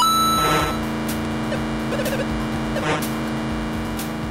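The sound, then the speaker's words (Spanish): Harsh electronic sounds of an old Atari racing video game play continuously: a droning engine-like buzz with steady tones, broken by bursts of noisy crunches and bleeps, loud and dense, with no talking. “Por cierto, este era el sonido del juego.”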